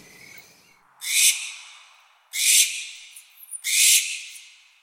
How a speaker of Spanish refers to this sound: Y tú escuchas a, un búho, a una lechuza gritar o reírse en el monte de noche y no sabes qué es,